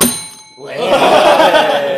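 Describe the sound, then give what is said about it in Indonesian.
A bell rings a second time near the start, its bright metallic tone fading within half a second before a burst of noisy, chattering voices takes over. “bel yang kedua, debunya besar ya”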